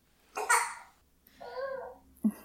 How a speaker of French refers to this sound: Un bébé.